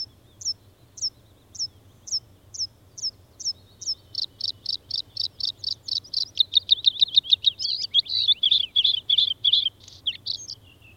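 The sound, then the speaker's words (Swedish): A bluethroat sings alone, recorded at Joksjaure in Lapland, starting with evenly spaced ringing notes that speed into a fast, varied run of buzzy, twanging phrases, over a faint low background hum. “Den här blåhaken som vi hörde, så den var Eh, inbandad i Joksjaure, Lappland, ja.”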